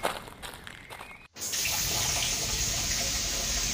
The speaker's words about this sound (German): Also, was geschieht? Das Wasser läuft ein. Und? D die Wanne läuft voll.